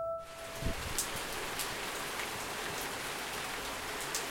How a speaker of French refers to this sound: Cet après-midi, on a eu le premier gros orage de la saison. Des énormes gouttes qui se sont écrasées sur la ville.